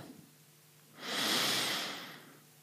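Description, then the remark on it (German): A single deep, airy breath in and out swells after a quiet moment, a soft rushing sound that rises and fades over about a second and a half, with no talking. “Dann holen wir jetzt noch mal tief Luft”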